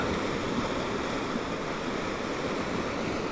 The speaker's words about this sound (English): I'm sitting on a spit of red rock, sticking out into the Virgin River and part of the Mojave Desert in northern Arizona.